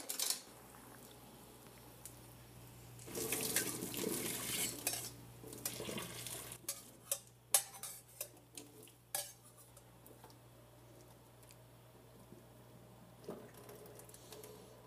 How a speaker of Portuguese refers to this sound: Coloca aí na sua pia uma peneira ou escorredor de massa vamos jogar a água fora e vamos voltar com a massa para a mesma panela que a gente utilizou. Então vamos lá, vamos fazer isso. Eu vou escorrer a minha massa aqui então.